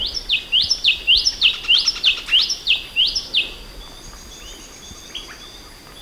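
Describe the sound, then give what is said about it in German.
In an audio recording, a newly discovered rainforest bird species sings a rapid series of bright, high chirping notes in a steady rhythm for about four seconds, then trails off into softer calls against a faint background hiss. “Und wir können sogar mal reinhören, denn es gibt schon die ersten Audioaufnahmen.”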